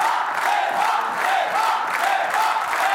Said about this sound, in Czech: To, co slyšíte, je skandování moc Eva, Eva.